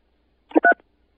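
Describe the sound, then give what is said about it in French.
Two short electronic beeps from a telephone keypad, pressed in quick succession and clear, with silence around them and no talking, as keys are pressed in answer to an automated telephone menu. “Pour changer la couleur de votre téléphone, appuyez sur la touche 3.”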